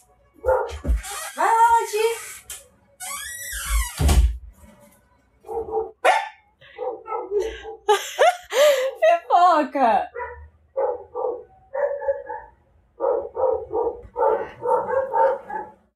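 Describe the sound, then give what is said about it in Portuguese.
Several dogs bark loudly, their sharp yaps overlapping in an excited chorus of repeated bursts, with a person's voice briefly mixed in; the barking interrupts a recording. “Uma pequena pausa nesse programa, porque meus cachorros latindo interromperam a gravação com um coral de cachorros.”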